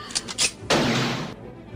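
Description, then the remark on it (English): A single sharp gunshot cracks out loud, its echo decaying over about half a second, preceded by a few faint clicks and rustles. “The wolf pack quickly refocused their bloodlust to the direction of the gunshot, and the wolves scrambled to retreat into the cover of darkness.”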